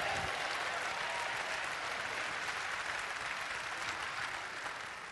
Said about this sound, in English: If it's you, give him a great big clap offering. Amen.